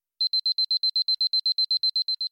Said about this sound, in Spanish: Mi despertador sonó a las 5.15 hora habitual.